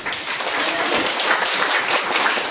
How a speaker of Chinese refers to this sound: 好，掌声。